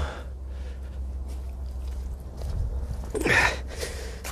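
Uneven gnawing and crunching as a dog chews on a stick, with a sharper cracking burst near the end, over a steady low outdoor rumble.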